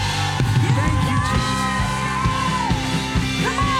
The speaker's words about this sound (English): Let's give the Lord one more big hand clap. Thank you, Jesus.